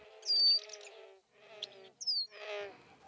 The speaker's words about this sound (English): If you walk to the end of the dock, you'll see a marsh that is submerged year round. Life abounds, and hundreds of birds, including least bitterns, common moorhens, ducks, grebes, and geese, make their nests here.